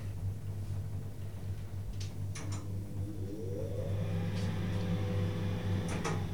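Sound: elevator ventilation fan running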